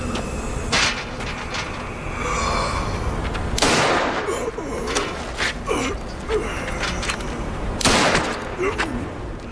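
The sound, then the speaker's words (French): Several gunshots ring out at irregular intervals, fired by pursuers at a man fleeing through falling snow, sharp loud cracks standing out against a dense, rumbling background noise. “Plusieurs coups de feu sont tirés.”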